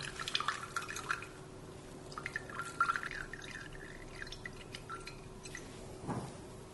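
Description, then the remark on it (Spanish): Whey drips and trickles from a cheesecloth full of cheese being squeezed in a strainer in the sink to remove excess water, a quiet, irregular patter of drops over a faint steady hum, with a slightly louder splash near the end. “Y ya con todo el queso dentro de nuestro trapito, lo que hay que hacer es quitarle el exceso de agua. Así que hay que presionar un poco.”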